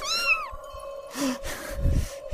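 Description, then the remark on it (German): A tiger cub lets out one short, high, wavering meow while being stroked, followed by a few soft breathy rustles and low thumps with no one speaking. “Ich streich jetzt erstmal das Tigerbaby.”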